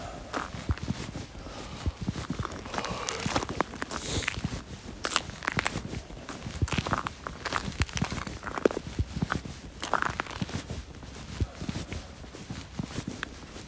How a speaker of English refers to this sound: This ice is making cool sounds.